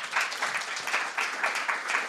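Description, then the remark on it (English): Steady applause from an audience, a dense, continuous patter of many hands clapping at moderate loudness with no voices over it. “They stay in, yeah, go ahead and clap.”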